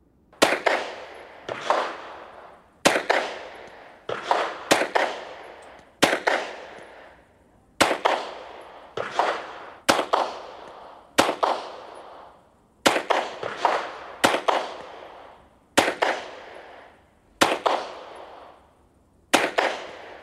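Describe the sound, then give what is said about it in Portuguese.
A pistol, fired by a trained police officer, fires 17 shots in exactly 30 seconds, shot after shot in quick succession, sharp loud cracks in irregular pairs and singles with brief echoing decays, no voices. “Foram exatos 30 segundos para dar 17 tiros. Só um a menos do que o revólver disparou no triplo do tempo.”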